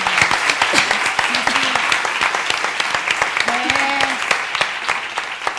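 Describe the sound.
Steady applause from an audience for a woman, many dense overlapping claps filling the whole stretch at a fairly loud level, with a few brief voiced calls or cheers rising through it.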